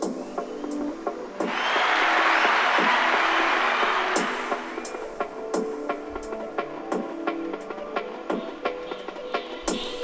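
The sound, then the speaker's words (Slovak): A short burst of dense applause swells for about three seconds, then thins into scattered individual claps that continue sporadically until the end, with no one talking. “Potlesk.”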